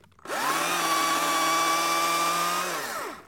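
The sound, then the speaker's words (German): A chainsaw, used to cut something in the run-up to Christmas, revs up quickly and holds a steady, loud whine for about two seconds before winding back down, with no voices present. “Ja, der Klang von Weihnachten ist für uns oder für mich auch natürlich diese, das mit der Motorsäge, dass man sagt, man, man schneidet was ab.”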